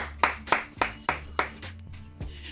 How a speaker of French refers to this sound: Nous pouvons nous applaudir.